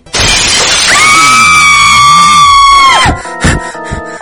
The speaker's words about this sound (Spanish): ¿Por qué rompes mi puerta?